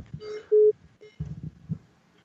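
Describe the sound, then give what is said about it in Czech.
A telephone line beeps after a listener's call to a radio phone-in cuts off: a loud steady tone followed by a shorter, quieter one, over low crackling line noise and muffled thumps. “Tak, nevím, jestli to zvodnil, nebo jestli to položil právě pan posluchač.”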